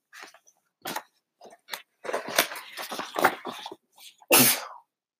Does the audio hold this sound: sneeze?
yes